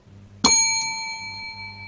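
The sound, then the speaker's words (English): A single bright bell ding rings out with a sharp strike, then its clear metallic tone hangs and slowly fades, fairly loud, with no voices. The bell is rung to signal a contestant to explain why their answer is the best. “once I ring the bell, you tell us why your answer is the best.”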